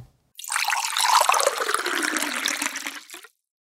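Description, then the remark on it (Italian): Hot water is poured onto already used tea leaves for a second infusion, in one steady, splashy stream lasting about three seconds, fairly loud and hissing, then it stops abruptly. No one speaks. “Adesso facciamo una piccola pausa perché eh, scaldiamo l'acqua per fare la seconda infusione oh. delle nostre foglie e vediamo questo che cosa significa, quindi riutilizzare le foglie per fare una seconda tazza di tè.”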